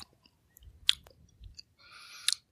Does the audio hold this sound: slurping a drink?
yes